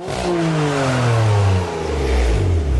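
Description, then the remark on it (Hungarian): A car engine revs loudly for about three seconds, its pitch sliding down and then climbing again in smooth surges, with a steady growl and no voices. “Ú, na ezt elvinném egy körre.”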